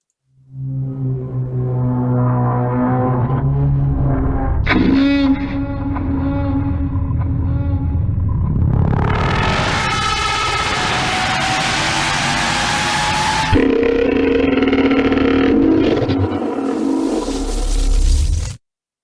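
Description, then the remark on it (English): A Thargoid alien sound effect: loud, eerie layered droning tones with a sharp hit, then a bright, rushing, warbling swell, settling back into a deep humming harmonic drone. No one speaks. “So I'm gonna go ahead and play the Thargoid sound since I have one”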